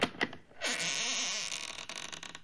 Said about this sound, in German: Aber es hatte eine dicke, feste Tür. Er klopfte an Knarrend öffnete sich die Tür,